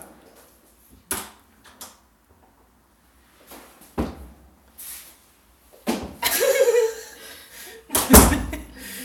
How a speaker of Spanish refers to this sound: Lo bueno es que la puerta se cierra por fuera, así que ahora no va a entrar.